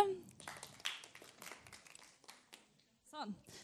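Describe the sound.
A few seconds of scattered, uneven hand clapping from a small group, fairly soft, fading out before a brief voice sounds at the end.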